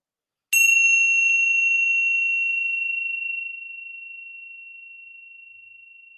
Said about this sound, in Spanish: Voy a sonar la campana. Déjense llevar por este sonido.